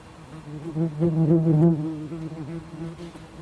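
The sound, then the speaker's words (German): A wasp buzzes close to the microphone, its steady droning hum wavering in pitch and swelling louder midway as it hovers nearby, with no talking over it. “Da war das gerade eine Wespe, nein.”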